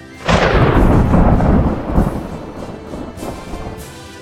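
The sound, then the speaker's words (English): A loud crack of thunder bursts out and rolls into a long, heavy rumble, fading as steady rain hisses on through a thunderstorm. “The journey took much longer, and there were storms along the way.”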